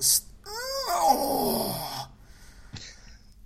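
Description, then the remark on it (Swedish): A drawn-out moaning groan from a voice, its pitch sliding downward over about a second and a half, preceded by a short breathy burst and followed by a brief exhaled gasp. “De är fina de stönen.”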